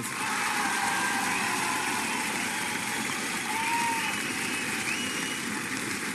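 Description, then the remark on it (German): An audience in a hall applauds for the informant who passed protocols to the Falter, a steady, dense wash of clapping that holds at an even loudness for several seconds without any voices. “Bitte um einen Applaus.”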